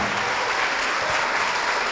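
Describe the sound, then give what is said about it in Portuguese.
A church audience in Bangu applauds the scripture reading, a steady, dense wash of clapping that holds at an even, fairly loud level throughout, with no voices standing out. “Então vamos dar para esta palavra a melhor salva de palmas que já se ouviu em Bangu.”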